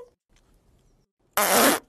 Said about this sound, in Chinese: 是气球！天哪，阿奇，你真的很会吹气球哎！